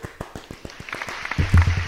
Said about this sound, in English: Y'all, let's give it a round of applause, A Round of applause for the trade.